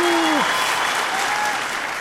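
A steady burst of crowd applause, played as a sound effect, fills the whole stretch, dense and fairly loud, with a short falling tone sliding down at the very start.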